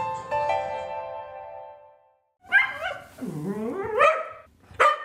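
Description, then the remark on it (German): A Jack Russell terrier named Nacho lets out a run of excited, high-pitched barks, yips and whining yelps as it races down the stairs to go for a walk, after a sustained tonal note fades out at the start. “So hört es sich an, wenn der Hund Nacho die Treppe herunterrast zum Spazierengehen.”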